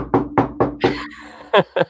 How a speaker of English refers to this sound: Knock a wood if you're with me.